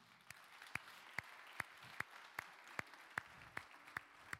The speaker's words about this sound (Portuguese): Você pode honrar a vida desses jovens com um aplauso ao Senhor Jesus?